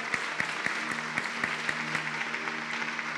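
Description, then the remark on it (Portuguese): A church audience claps together in a steady rhythm, applauding the Lord Jesus, the sharp beats cutting through a dense wash of applause, while sustained low musical tones hum underneath. “Você pode aplaudir ao Senhor Jesus.”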